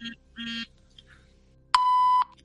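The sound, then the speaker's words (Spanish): A priest's mobile phone, left switched on, beeps three times: two short, low electronic tones close together, then after a pause a longer, louder and higher-pitched beep. No one speaks. “Esto era el cura con el móvil, ¿eh? Que es que no lo apagó y de vez en cuando suena el, pi, pi, pi, pi.”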